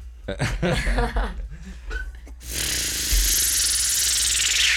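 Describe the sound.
Beatboxing performed into a microphone as a demonstration: a run of quick, punchy mouth-made beats and buzzy hums, then a loud, steady hissing burst that holds to the end.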